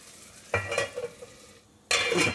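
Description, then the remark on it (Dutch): Water poured from a pan lid hits hot fat with onions in a pan and bursts into a loud, crackling sizzle, fades to a low simmer, then flares into a second sharp hiss near the end. No one speaks. “Dan is het altijd even wel voorzichtig doen, want je gaat water toevoegen aan vet.”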